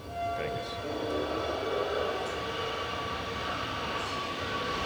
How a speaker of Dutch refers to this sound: Eerstvolgende metro is lijn 52 richting Zuid. En zo verdwijnt hij onder het ei. Ja, dat gaat hij.